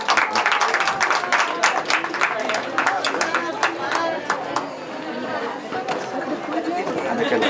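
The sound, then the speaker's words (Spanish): An audience applauds singers and professional musicians from the School of Arts of the city of Saltillo, dense, steady clapping mixed with a murmur of overlapping chatter from the crowd, holding at a fairly even loudness throughout. “Eh, un fuerte aplauso de nuevo para nuestros grandes cantantes, eh, músicos profesionales de la Escuela de Artes de la ciudad de Saltillo.”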